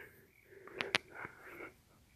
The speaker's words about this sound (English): Sorry, I had to yawn.